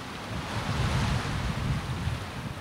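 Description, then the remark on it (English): Steady lake waves wash against the shore under a continuous rush of wind, a broad, fairly loud wash of noise with no voices. “And I'm standing here looking at the endless water. It looks like it goes on forever. I mean, I know it's a lake, but it feels like I'm back home along the ocean.”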